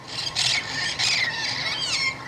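A male and a female red-crowned parrot duet, trading harsh, raspy squawks and shrill squeals in quick alternating bursts, loud, with no pauses and no talking.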